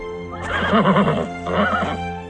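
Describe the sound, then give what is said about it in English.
A white horse coming back whinnies loudly, a long quavering neigh followed by a second, shorter one, with no one speaking. “We cut to John bathing in a cold river when the white horse comes back.”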